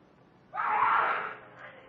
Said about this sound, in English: I head for the scream.